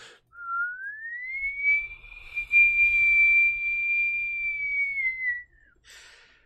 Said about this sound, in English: The snow starts to swirl and gather over in a spot in a little collection of trees. A sharp whistling fills the air.